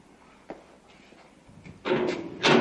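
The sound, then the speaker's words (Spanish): The access gate to a zone of cages is opened: a faint click, then a loud, harsh scraping rush of metal that swells into a second, sharper burst at the end. No one speaks. “Abre la cancela de acceso a la zona de jaulas y camina hasta la puerta contraria.”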